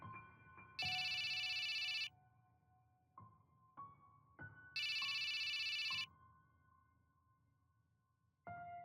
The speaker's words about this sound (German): Das Telefon des Museums läutete.